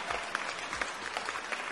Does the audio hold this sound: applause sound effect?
yes